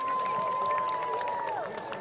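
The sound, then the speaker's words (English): A crowd applauds and cheers for the people who helped set up the event and run the toy drive with the SFPD, in a dense, steady wash of clapping, with a long high whistle held over it that slides downward near the end. “Can you give them a big round of applause, please?”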